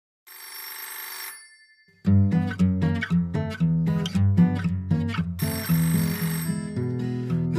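household object, telephone bell ringing

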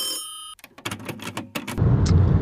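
signal or alarm, telephone ringing

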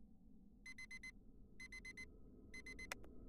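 household object, alarm clock ringing

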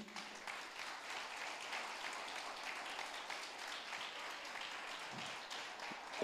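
crowd, audience applauding

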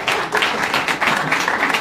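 crowd, audience applause

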